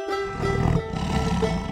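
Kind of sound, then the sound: animal, tiger roar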